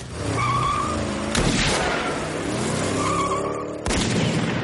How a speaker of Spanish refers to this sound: El coche se aleja por un camino de tierra entre naves y casas bajas.